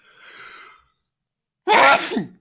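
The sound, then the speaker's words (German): A single loud sneeze bursts out after a soft, drawn-in breath and a short pause, with no talking around it. “Gesundheit?”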